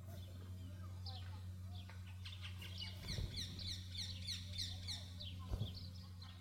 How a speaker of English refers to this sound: Could you hear that? In the trees right here on this mountain, there are birds chirping. And they're preaching a sermon that is a thousand times better than mine.